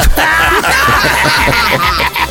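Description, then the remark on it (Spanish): A man wails loudly in a strained, sobbing cry, sustained with little pause, his voice cracking and rising in harsh, drawn-out bursts; a father crying during a prank call on the Panda Show. “¿Sí escuchaste que tu papá se puso a llorar, mija?”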